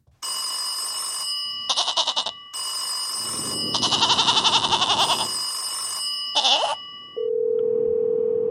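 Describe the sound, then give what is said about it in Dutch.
A phone call ringing tone as a show dials in to a guest: a series of bright, warbling electronic tone bursts with short gaps between them, ending in a steady, lower continuous tone. No one speaks. “En daar gaan we even inbellen met niemand minder dan”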